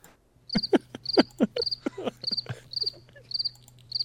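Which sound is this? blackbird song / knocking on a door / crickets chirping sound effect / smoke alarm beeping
crickets chirping sound effect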